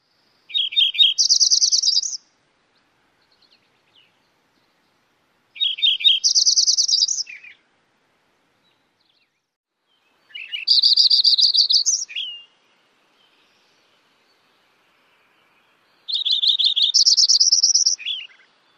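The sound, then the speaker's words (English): A Lincoln's sparrow sings four separate songs, each a quick, bubbling run of high trills that climbs and then drops, with several seconds of quiet between them. Clear, no voices. “The Lincoln Sparrow is musical series of trills in a rising and falling pattern.”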